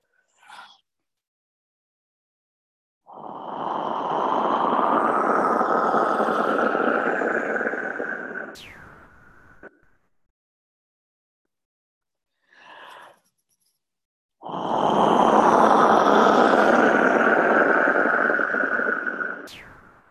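A wind whistle is blown in two long, loud, breathy rushes of air, each several seconds, with a few short puffs before and between them. There's no talking.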